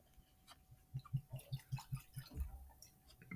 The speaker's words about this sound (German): Ähm, genau, den würde ich mir jetzt auch mal einschenken. Richtige Piratenflasche.